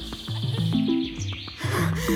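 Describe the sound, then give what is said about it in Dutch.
A small bird sings bright, quick chirping phrases over a dense, steady bed of lower sustained tones, the song continuous and fairly loud throughout. “Het vogeltje probeerde er bovenuit te komen met haar gezang.”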